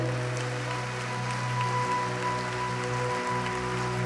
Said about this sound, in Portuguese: Vamos dar um lindo aplauso ao Senhor.